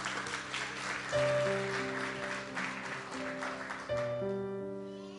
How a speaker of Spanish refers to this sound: Muchas gracias. Vamos a darles un aplauso a nuestros actores.